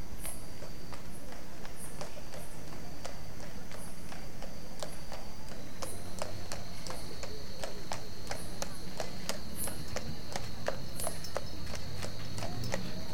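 horse hooves clip-clopping

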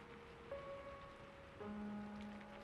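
rain falling

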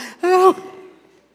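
yawn

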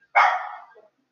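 dog barking

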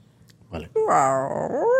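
dog growling and whimpering

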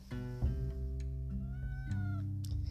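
cat meowing

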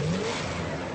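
car engine revving

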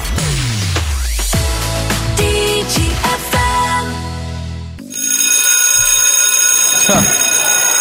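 school bell ringing

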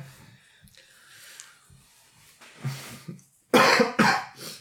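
coughing

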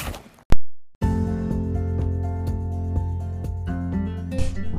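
door being closed

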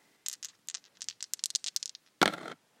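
dice being rolled

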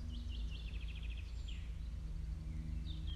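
songbirds chirping

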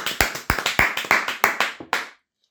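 clapping

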